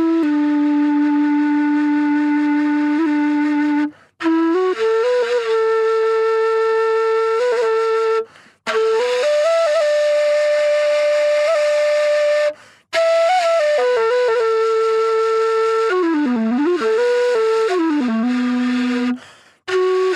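A breathy wind instrument, played with the tongue covering half of the tube end so part of the air goes into the pipe and part swirls out, plays loud, sustained notes in four long phrases separated by brief pauses for breath, the pitch stepping between tones and bending near the end.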